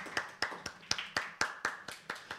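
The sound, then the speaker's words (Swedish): Steady, rhythmic hand clapping: about ten sharp, bright claps at an even quick pace, each fading briefly before the next, with no voices over them. “stor applåd.”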